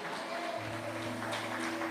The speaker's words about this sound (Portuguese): Você crê nisso? Se crê, então aplaude Jesus bem forte e dá glória a Deus.